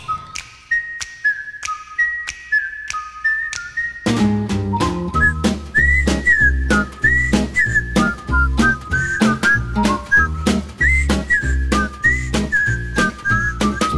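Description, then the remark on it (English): A bright whistled tune carries the jaunty theme melody of The Andy Griffith Show, first with only light ticking percussion, then backed by a full band with a steady bass and drum beat for the rest. “I can't get that high in the whistling.”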